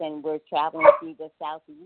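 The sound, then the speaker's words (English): A single sharp bark from a rescue dog from Costa Rica, in Georgia, cuts in briefly, loud, overlapping a person who keeps talking steadily through it. “Sorry for the barking.”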